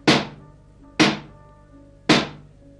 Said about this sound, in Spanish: en eso que llaman a la puerta.